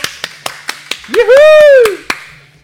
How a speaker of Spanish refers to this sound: Por favor, un aplauso.